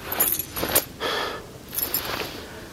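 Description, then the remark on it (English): Car keys jangle in a few quick metallic bursts, bright and clinking, as they are handed over, with brief pauses between shakes and no talking. “Keys! Now!”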